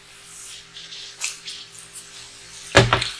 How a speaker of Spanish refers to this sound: Ahora, permítame tomar un poquito de agua.